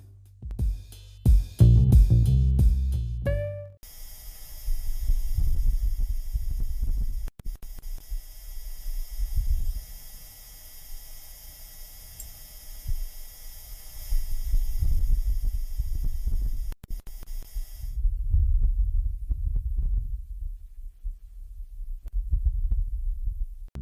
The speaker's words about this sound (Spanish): Este es el primer robot de la Agencia Espacial estadounidense en incluir un micrófono para capturar sonido y enviarlo a la Tierra. En este logramos apreciar el sonido del viento que corre y el ruido que genera el robot.